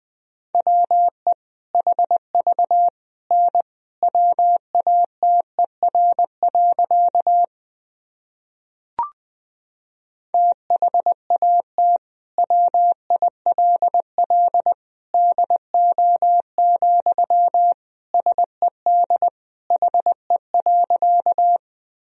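Morse code sentences built from the top 100 words and abbreviations, sent at 20 words per minute: a steady mid-pitched tone keyed into quick dots and dashes, broken by a short pause and a single click, with no voices.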